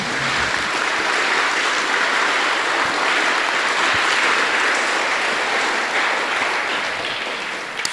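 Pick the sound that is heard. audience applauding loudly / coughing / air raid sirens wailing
audience applauding loudly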